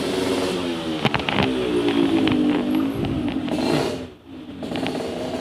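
A motorcycle engine drones steadily, its pitch rising and falling as it rides past, with a brief drop in loudness near the end before the rumble returns.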